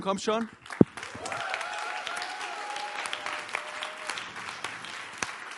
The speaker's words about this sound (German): Ähm, jetzt lass uns mal dem Lobpreisteam einen fetten Applaus geben.